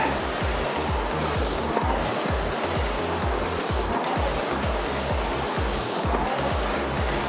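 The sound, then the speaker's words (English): A rowing machine's loose or worn seat rollers rumble noisily, with steady low thudding pulses repeating under a constant loud whooshing rush of air, no voices. “My rollers are loose or worn or something.”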